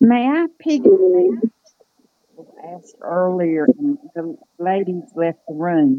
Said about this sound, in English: Uh, you were cutting out a little. What did you say?